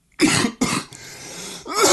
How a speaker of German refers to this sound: Ich huste nur ab. Alter, ist ja ekelhaft.